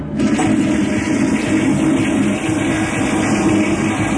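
A generator drones steadily and loudly throughout, a constant engine hum with a rough low rumble and no pauses or changes in pitch. No one speaks.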